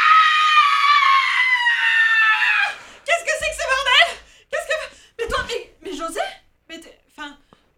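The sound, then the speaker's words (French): A woman, startled as she walks into an office, lets out a long, loud, high-pitched scream lasting a few seconds, followed by choppy bursts of laughter and excited vocal sounds. “Elle surprend cet échange d'organes et s'interroge. Elle hurle à la mort.”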